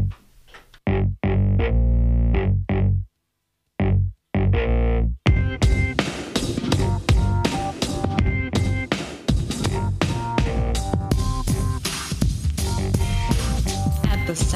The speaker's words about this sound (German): ich kündige das nächste Musikstück an … mit … und auch dieses Stück findet sich auf dem PodSafe Music Network, einem Internetportal für freie Musik.